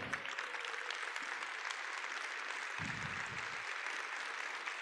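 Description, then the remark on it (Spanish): A large standing crowd claps loudly and steadily to give thanks to God, a dense, continuous wash of applause with no break, with a brief low rumble partway through. “Vamos a ponernos en pie, vamos a darle gracias a Dios. Dáselo fuerte al Señor.”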